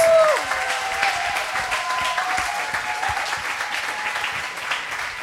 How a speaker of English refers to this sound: why don't we give a round of applause yes. for our models and our designers?